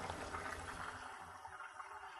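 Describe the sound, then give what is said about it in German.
Water is poured off boiled potatoes with a steady, rushing splash that runs unbroken for about two seconds, moderately loud, then eases slightly toward the end. “So, die Kartoffeln sind gar. Die gießen wir jetzt ab”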